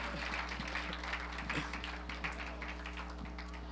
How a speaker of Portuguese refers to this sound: Olha, eu falo que esse mídia é demais, cara. Um aplauso para esse mídia.